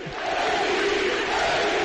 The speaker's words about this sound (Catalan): Aquesta vegada l'oportunitat no s'escapa, no va ser i MVP, MVP crits per Calgai.